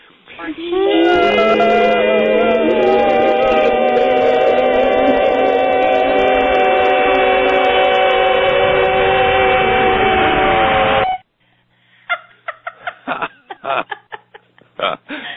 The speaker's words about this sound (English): Uh, that sometimes helps men do it, but let's all make that the highest pitched E sound and see if we can feel it up there. You ready? One, two, three.